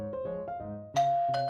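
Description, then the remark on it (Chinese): An electronic doorbell chimes a short run of ringing, sustained tones, ending with two louder, brighter strikes that hang in the air. Nobody speaks. “这时，门铃又响了。”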